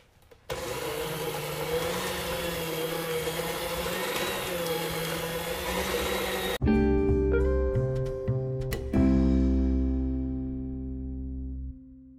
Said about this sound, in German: Genau, jetzt ähm, habe ich meine Knetaken genommen und jetzt verrühren wir den Teig.